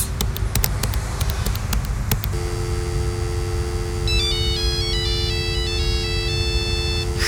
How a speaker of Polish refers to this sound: Uwaga, wybieram numer. Co jest? Hmm, nasz gość specjalny z jakiegoś powodu nie chce odebrać telefonu. Może spróbujmy jeszcze raz.